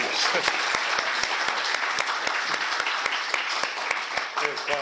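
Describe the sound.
Audience applause: a dense, steady wash of many hands clapping for about five seconds, with sharp individual claps popping out and faint voices mixed in underneath.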